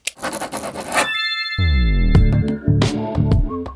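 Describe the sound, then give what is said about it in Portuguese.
A pen scratches quickly across paper for about a second in short rasping strokes, then a bright ringing chime sounds and warm tonal music swells in. “Pega a caneta.”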